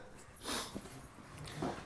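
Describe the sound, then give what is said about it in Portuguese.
A dog snorts in two short, breathy bursts with soft whimpering noises between them, fairly quiet, with no one talking. “Vamos pôr o cachorro para fora.”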